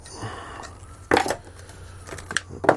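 Crisp cutting sounds as a blade slices the left and then the right side of a notch into a belt, a sharp cut followed a moment later by a couple more short snips, with a faint steady hum underneath.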